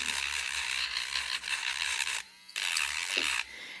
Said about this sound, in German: Das, die, die, das ist eine ganz sanfte Feile, deswegen. Okay, eigentlich gar die nicht. Die macht nur ein bisschen rau eigentlich.